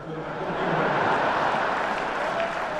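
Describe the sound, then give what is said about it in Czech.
More than 18,000 fans in an arena applaud steadily during a speech by Jágr, a dense wash of thousands of hands clapping at once, loud and sustained without a break, with a faint murmur of voices underneath. “Prakticky každé Jágrovo souvětí přerušilo více než 18 000 fanoušků většinou potleskem a často také smíchem, tedy až ve chvíli, kdy Jágra vůbec publikum pustilo ke slovu.”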